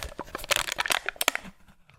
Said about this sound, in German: Einen leeren Joghurtbecher korrekt wegzuwerfen, ist eine Wissenschaft für sich. Erstmal den Aludeckel abziehen